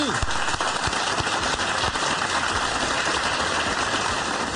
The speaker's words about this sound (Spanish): Oiga, también en Medellín nos está yendo muy bien. Hola, aplauso para Medellín.